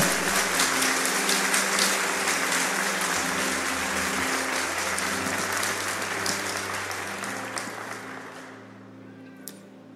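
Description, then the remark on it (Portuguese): An audience applauds loudly and steadily after a Bible reading, a dense wash of clapping that holds for several seconds before tapering off toward the end, with a few scattered claps lingering. “Eu gostaria que, se vocês entenderam, aplaudissem essa palavra. Bem forte, bem forte.”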